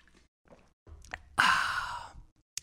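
Drinking: a few soft gulps of water, then a loud, breathy exhale of relief and a small click at the end. No one speaks.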